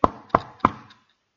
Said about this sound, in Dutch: Nee, hij staat nog aan de deur en hij klopt.